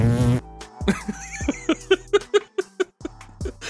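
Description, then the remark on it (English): A voice imitates a vibrating buzz with a rapid series of short, pulsing bursts, fairly loud, with laughter breaking in around it. “they're just gonna make vibrating sounds at him.”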